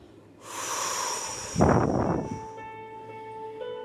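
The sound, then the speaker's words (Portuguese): A long, deep breath out during a guided breathing exercise, airy, swelling into a stronger rush of air before fading away, with a soft sustained tone lingering in the background afterward. “eu transformo nesta respiração, exalando agora.”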